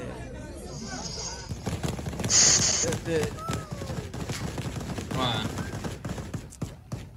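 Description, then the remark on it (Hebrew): Repeated bursts of gunfire from the Taliban outside the airport in Kabul crackle through a busy outdoor scene, sharp cracks coming in irregular clusters, with people talking and shouting in the background. “אגב, אה, התמונות האלה שרואים עכשיו, שזה מחוץ לשדה התעופה, זה הטליבן שם יורה כדי לדאוג ש...”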